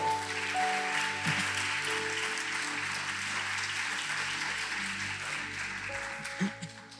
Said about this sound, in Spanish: Bueno, si quiere darle el aplauso, déselo al Señor.